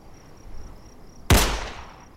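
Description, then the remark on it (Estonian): A single sharp gunshot cracks out loudly, then decays over about a second, following a quiet stretch of steady high-pitched insect chirping that returns as the echo fades. “Patterson vajutas päästikule”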